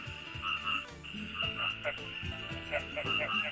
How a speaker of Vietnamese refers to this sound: Tiếng ếch nhái kêu râm ran cả khoảng trời đêm yên tĩnh nơi quê nhà.